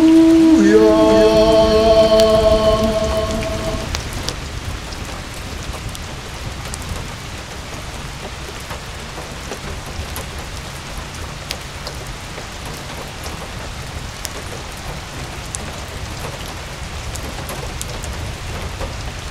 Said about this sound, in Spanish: Está lloviendo demasiado, Peñi, pero es muy bueno para todos.